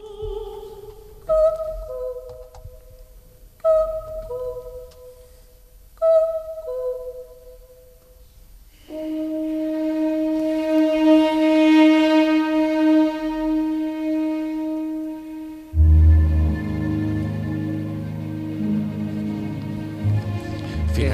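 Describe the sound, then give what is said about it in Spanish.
Descriptive orchestral ballet music with three repeated short two-note calls like a cuckoo, then a long sustained chord, swelling into a louder, fuller passage with low strings and brass. No one speaks. “esta parte, sí. Las coplas del cuco, del sombrero de tres picos”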